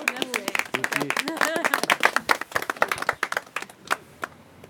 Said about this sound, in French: on peut t'applaudir.